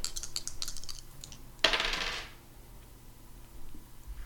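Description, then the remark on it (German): Light clicking and rattling, then a sharp clatter as dice tumble across a hard table and settle, clear with no one talking. “Ja, würfel mal auf hyperboreanische, äh, auf hyperboreanisch. Mhm. Oh, komm schon, kommt schon, Würfel.”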